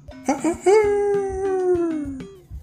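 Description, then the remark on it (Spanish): A human voice imitates a rooster crowing: two quick rising yelps followed by a long, loud, held note that slowly falls in pitch before cutting off. “Cuando el gallo cantaba,”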